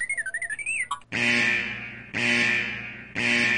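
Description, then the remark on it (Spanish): A spoiler alarm sound effect played before a spoiler discussion of the film Black Panther: Wakanda Forever: a brief burst of warbling, robotic electronic chirps, then three loud, sustained buzzing alarm blasts in steady succession, with no talking. “Lo vamos a platicar con spoilers, entonces necesitamos la ayuda de nuestro increíble Arturito, por favor, con la alarma de spoilers.”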